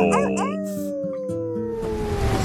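Several wolves howl together in long, overlapping wails that slide slowly downward in pitch, loud, filling the whole moment without a break.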